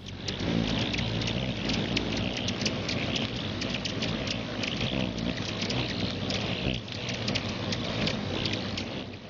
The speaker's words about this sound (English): This episode's audio clip is of a couple dozen hummingbirds flying around.